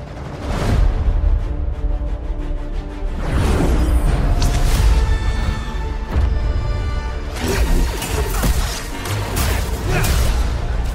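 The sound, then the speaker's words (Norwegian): Loud sweeping Force-push whooshes with heavy crashing impacts from the video game Jedi Survivor, a stool pulled with the Force and pushed through glass, repeating in dense bursts over a continuous rumbling background, with no one speaking. “Bruk force-pull på krakken. Force-push den bortatt glasset.”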